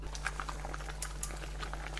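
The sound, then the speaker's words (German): Water bubbling at a steady boil in a pot, heated for a water bath to melt chocolate, with a dense stream of small pops and gurgles, over a constant low hum. No voices. “Zuerst einmal bringen wir das Wasser zum Kochen, damit wir die Schokolade im Wasserbad schmelzen können.”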